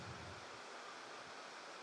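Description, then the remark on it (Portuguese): A steady, dense hiss of heavy rain pouring down outside over the city during an evening church service, continuous and even with no breaks, fairly soft and diffuse, with no voices over it. “Quanto mais chuva cair lá fora, eu creio que Deus vai derramar chuva aqui dentro também.”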